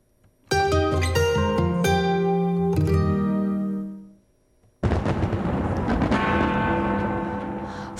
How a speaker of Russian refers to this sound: первые минуты нового 2022 знаменитый новогодний фейерверк в Сиднее сильно отличался от предыдущих лет.